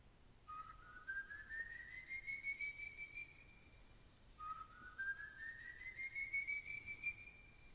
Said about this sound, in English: That's a pretty cool whistle.